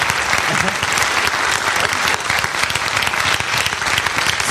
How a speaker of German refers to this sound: Super, vielen Dank. Dankeschön. Applaus für die tollen Geräusche. Dankeschön.